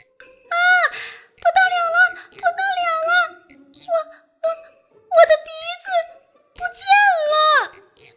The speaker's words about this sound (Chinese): 在一个阳光明媚的早晨，从小花猫家里发出了一声尖叫。